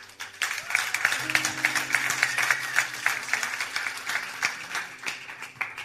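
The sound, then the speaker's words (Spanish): A church audience at Iglesia Doral applauds steadily for several seconds to welcome a guest, a dense, continuous patter of many hands clapping at fairly even loudness, with a faint low hum running underneath. “Así que quiero que recibamos con un fuerte aplauso a una amiga personal,”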